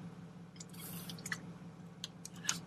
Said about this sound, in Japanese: もう喋りすぎて喉からかんないんですけど、ちょっと水飲みながらやってますけど。